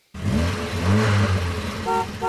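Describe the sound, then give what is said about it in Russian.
A short traffic-themed jingle introducing an evening traffic jam report: a car engine revs loudly, then a few bright honks of a car horn sound near the end, with no voices. “давай нашу заставку”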